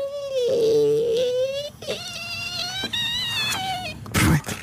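A badly warped kitchen door is opened, creaking in long, drawn-out squeals whose pitch wavers and bends across several strained stretches, ending with a brief dull knock.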